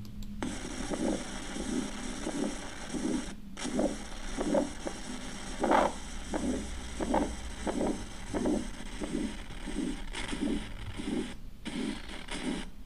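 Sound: aortic stenosis heart murmur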